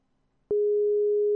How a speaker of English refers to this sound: It doesn't seem to be connecting me. We still live? Alright, now it's ringing. This happens.